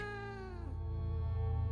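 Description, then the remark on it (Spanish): A single strange, drawn-out cat meow, its tone sliding downward before settling into a low, steady, droning note. Fairly loud, with no talking. “Después de eso nunca recibí reportes similares, y aunque regresé al área, no volví a escuchar tan peculiar maullido.”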